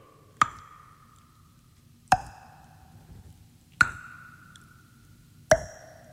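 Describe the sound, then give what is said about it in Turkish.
Four evenly spaced, crisp mouth pops imitate water drops, each a sharp click with a brief, slightly falling ringing tone, with no talking. “Susuz su damlası sesine de benzedi. Onu da andırayım istedim biraz. Yani kasten yaptım, bilerek yaptım onu.”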